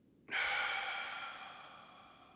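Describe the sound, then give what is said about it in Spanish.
A single long, deep breath drawn in, starting abruptly and holding a steady airy hiss that slowly fades over two seconds, with no talking. “Inhalo.”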